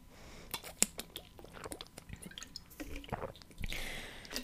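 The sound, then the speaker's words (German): Someone takes a sip of a drink: quiet wet mouth clicks, a brief slurp and swallowing sounds, with a soft rustle toward the end and no talking. “Ich trinke einen Schluck, dann lese ich vor.”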